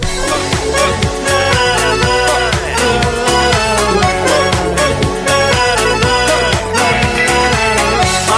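A fully produced, studio-processed song recording plays back loud, with a steady driving beat, layered instruments and a polished studio sound filling the whole stretch without pause.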